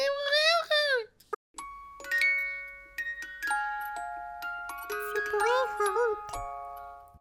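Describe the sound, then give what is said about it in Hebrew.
A short musical jingle cue introducing a parenting stories segment plays: a brief warbling, voice-like melodic phrase, then layered chiming bell tones ringing out one after another and overlapping, ending with a higher wavering melody. “שים לי קיו, ישרמית.”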